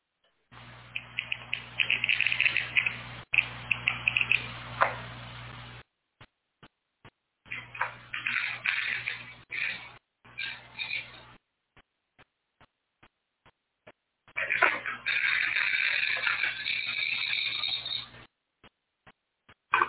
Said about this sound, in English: Well, this is what Leslie created in, I think, her kitchen uh, with a glass cutter um, and a microphone and a recorder and a, uh, a, a, a chunk of glass as she shredded it with the glass cutter. Listen.